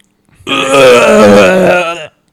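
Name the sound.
voice imitating vomiting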